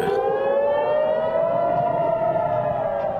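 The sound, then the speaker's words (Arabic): A loud civil defense air raid siren wails steadily in southern Israel, warning of incoming rockets, its tone slowly rising as it drones on without pause, heard alone with no voices. “في اليوم نفسه وفي مكان آخر بجنوب إسرائيل دوت صفارات الإنذار”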